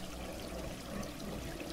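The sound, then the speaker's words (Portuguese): A steady, continuous rush of falling water, like a waterfall pouring, holding an even level throughout with no voices or other sounds. “Uma lavada, aquela limpeza gostosa que só as cachoeiras dão pra gente.”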